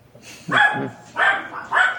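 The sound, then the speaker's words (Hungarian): A person imitates a dog with three loud bark-like yelps in quick succession, each short and voiced, with brief pauses between them. “amikor elkezdtem ugatni ott lent.”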